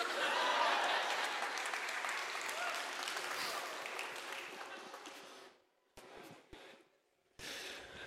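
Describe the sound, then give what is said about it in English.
A crowd applauds steadily for several seconds, a dense wash of many hands clapping that thins out, drops nearly silent, then resumes briefly in short scattered bursts. “you hear them clapping?”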